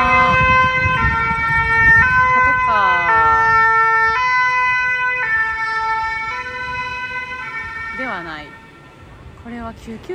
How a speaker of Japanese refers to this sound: 車やなうんすごいうるさかったな